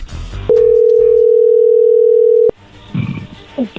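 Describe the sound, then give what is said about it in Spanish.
A telephone ringing tone as a call is being dialed, a single steady, low-pitched electronic hum held loud for about two seconds before cutting off abruptly, followed by faint muffled rustling and line noise. “se está marcando, no haga ruido.”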